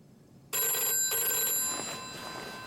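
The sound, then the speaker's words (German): An old-style telephone rings loudly in an apartment in Paris in the middle of the night in 1975, starting abruptly with a sustained metallic trill in two quick bursts, then fading slightly as it continues alone. “Und in seiner Pariser Wohnung stolpert der neue CEO von Airbus, Bernard Latier, aus dem Bett und geht ans Telefon.”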